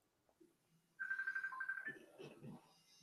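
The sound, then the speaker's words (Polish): A telephone rings with a single loud electronic burst of rapidly pulsing tone lasting about a second, followed by a muffled voice and line noise. “O, mamy telefon.”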